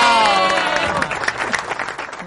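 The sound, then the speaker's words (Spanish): Clapping from a group of people, a dense patter of hand claps that starts over a brief sung or cheered voice and continues steadily, fairly loud, for a couple of seconds. “Ahora sí, aplauda, aplauda.”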